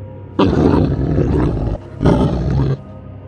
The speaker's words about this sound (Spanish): La criatura dejó escapar un gruñido largo.